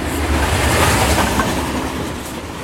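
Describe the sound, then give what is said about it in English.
A loud train rumbles past with a continuous clattering roar and deep low-end rumble that holds steady from start to finish, with no voices. “It is not safe to cross the tracks. I am not afraid of trains.”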